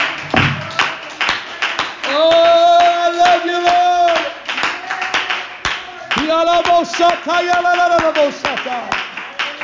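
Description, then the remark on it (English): An audience at an evening worship service claps their hands in a steady, loud rhythm, sharp beats repeating throughout while a voice sings or calls out sustained tones over the clapping. “Let's clap our hands into the Lord and worship Him tonight.”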